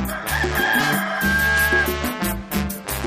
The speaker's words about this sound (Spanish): Estos son los gallos que se escuchan en mi pueblo.